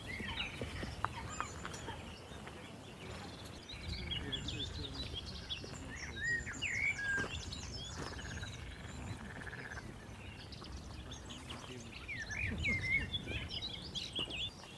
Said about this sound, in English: really sounds like frogs or toads to me.